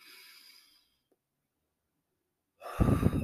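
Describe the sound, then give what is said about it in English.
A soft, airy breath drawn in at the start, a moment of silence, then a loud rush of breath with a blowy, gusty texture, taken during a breathing exercise. No one speaks. “Let's inhale this morning.”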